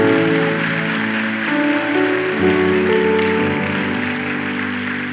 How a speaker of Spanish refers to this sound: Dele un fuerte aplauso al Señor por eso.